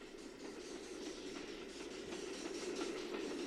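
A coal-fired steam train rolls steadily along the rails, a continuous rumbling roar broken by a regular clickety-clack of wheels over track joints, holding an even loudness throughout.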